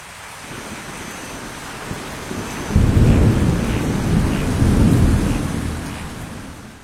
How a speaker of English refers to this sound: Suddenly, there was a startling flash of bright lightning thunder, roared and boomed.